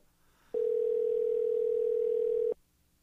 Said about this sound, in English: I'm going to try calling back, and uh, we'll see if we can't get Anthony back on the line